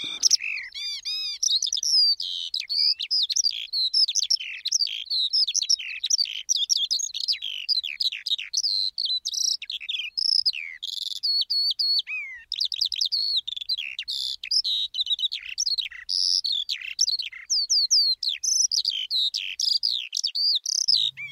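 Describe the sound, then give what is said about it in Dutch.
A Eurasian skylark sings a long, unbroken, steady stream of rapid, high warbling trills and chirps, with no voices or other sounds. “Ik hoor een veldleeuwerik.”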